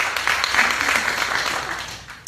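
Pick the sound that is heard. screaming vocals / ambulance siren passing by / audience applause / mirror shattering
audience applause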